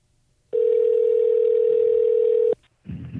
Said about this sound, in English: All right, all right. let's uh, let's dial them up.